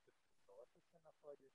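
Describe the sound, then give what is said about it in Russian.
A voice comes through very faint and muffled, as if over a degraded connection. Its syllables are broken and hard to make out, with almost no crispness. “Ой, тебя плохо слышно сейчас стало это.”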